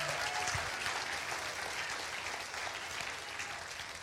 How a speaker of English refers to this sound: Now clap right now. Okay?